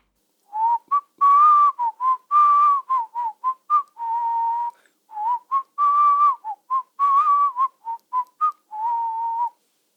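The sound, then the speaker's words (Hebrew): A bright, bouncy whistled tune, a cheerful song a prince composed for his mare Shahin and whistles to her while riding her: a string of short and held notes in a lively rhythm, with the pitch sliding up and down, repeated as a phrase with brief pauses, clear and alone. “כשרכב על שהין, היה הנסיך שורק לה שיר עליז שחיבר בשבילה.”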